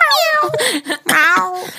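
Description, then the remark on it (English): A voice imitates a cat meowing twice in quick succession while trying to make a New Year fireworks sound, drawn-out, wavering tones that rise and fall, loud, with a short gap between the two calls. “that sounds like a cat.”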